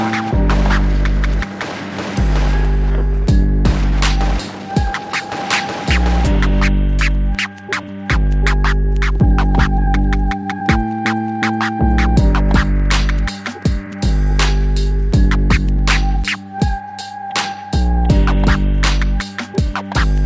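A loud hip-hop beat from a rap group from Londrina, with heavy bass and a steady groove, overlaid with sharp, repeated turntable scratches cutting in rhythmically throughout; no rapping or talking is heard.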